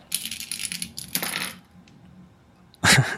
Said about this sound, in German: Mach das mal, ich würfel so lang weiter. Ähm, äh, 77, da würfel ich jetzt gleich nochmal.